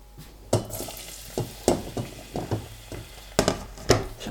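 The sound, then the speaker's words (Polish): Chopped onion sizzles in melted fat in a pot taken off the burner, a steady hiss broken by irregular knocks and scrapes of a utensil stirring against the pot. No one speaks. “Za chwilę wyrzucę cebulowe śmieci, ale póki co zajmę się siekaniem cebuli i pierwszą część już do zdjętego garnka z rozpuszczonym tłuszczem mogę sobie wrzucić.”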